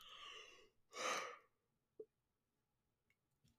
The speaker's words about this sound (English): I have to yawn again.